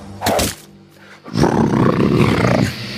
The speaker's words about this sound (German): Das Schreien des Krokodils gefällt mir.